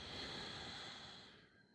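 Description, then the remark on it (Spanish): A steady, breathy exhale through the nose during a pranayama breathing exercise, after inhaling through the teeth; fairly loud, fading gradually over under two seconds and ending with a faint click. No talking. “Si tú separas tus labios y juntas tus dientes, vas a inhalar por los dientes y vas a exhalar por la nariz.”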